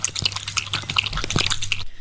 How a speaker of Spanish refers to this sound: Vamos a escuchar el sonidito. Es un perro tomando agua. Oye, Choco, ¿y si hubiera dicho que era una perra? Es un perro igual. ¿Y si hubiera dicho que era un gato? No es un gato, es un perro, escuchemos.